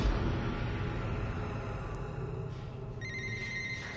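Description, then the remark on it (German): A steady low rumble of background noise, then a telephone starts ringing near the end, its bright electronic tone sounding clearly over the hum with no one speaking. “Im April 2016 meldete sich eine Frau telefonisch bei Heidemarie Heller.”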